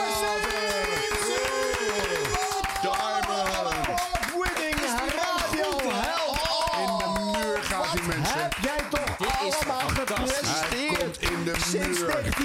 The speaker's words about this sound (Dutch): Nou, zullen we nu het grootste applaus geven wat we ooit hebben gegeven?